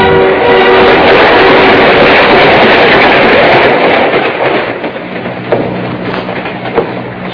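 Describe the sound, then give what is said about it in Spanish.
A passenger train with every seat in the coach taken rolls along the rails with a loud, steady roar and rumble, easing slightly midway, with faint rhythmic clacks of the wheels. No voices are heard. “Pues, eh, todos los asientos del coche vienen ocupados.”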